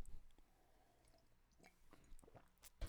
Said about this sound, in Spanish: Eh, estamos en directo desde mi hogar el día de hoy y bueno, voy a dar un trago de café.